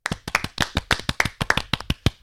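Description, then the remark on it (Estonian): A brief round of applause from a few people in a Tallinn studio, congratulating Tartu Bigbank and Alar Rikberg on winning the main tournament, with sharp, fairly steady claps, about fourteen of them in quick succession, with no talking. “aga enne kui me hakkame Selverist rääkima, õnnitleme Tartu Bigbanki ja Alar Rikbergi põhiturniiri võitu nüüd kindlustatud, teeme siin Tallinna tagasisõidukus stuudios ka väikese aplausi”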